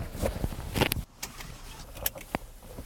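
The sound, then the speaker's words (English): A pickup truck door shuts with a solid, heavy thunk, surrounded by brief rustles and clicks of someone moving around inside the truck. “I am pleased with the door closing. I like that. I just, I, it's, it's solid. It's got a thunk.”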